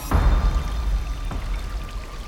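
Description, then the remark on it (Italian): Water gushes and pours steadily into the hold of a motor ship that is taking on water. A continuous rushing splash with a deep low rumble beneath it, fairly loud, with no voices. “La nave sta imbarcando acqua, o almeno c'è acqua nella stiva, anche se il marinaio non ha visto buchi nello scafo, ma non importa.”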